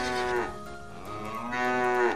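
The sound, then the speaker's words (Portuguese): A cow named Clotilde moos twice in quick succession, each call a long, loud, low-pitched bellow with rich harmonics, rising and swelling before trailing off, with no voices present. “A Clotilde, tá fazendo barulho.”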